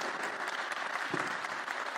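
An audience claps in a sustained, dense round of applause, steady and moderately loud throughout, with no voices standing out.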